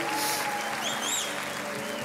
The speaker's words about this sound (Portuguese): Obrigado, gente. Dá uma salva de palmas para esse louvor aqui, irmão.